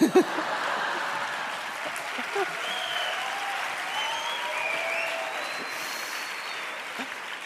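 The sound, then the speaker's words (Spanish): Sustained audience applause for a story about a castration, a dense steady patter of many hands clapping at an even level for several seconds, with faint voices and a few whoops mixed in. “La gente está aplaudiendo una castración.”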